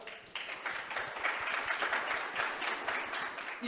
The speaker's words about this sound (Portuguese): Queria agradecer a presença de vocês todos. Uma salva de palmas.